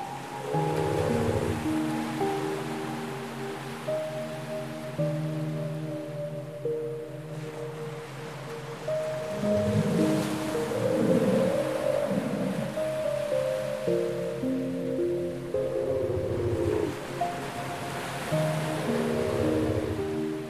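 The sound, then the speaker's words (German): Ocean waves wash onto a sunny beach in a steady, rolling surge, swelling and receding every several seconds beneath a soft, sustained musical backdrop. No one speaks. “Dabei schaust du übers wunderschöne Meer und lässt dich von der Sonne wärmen.”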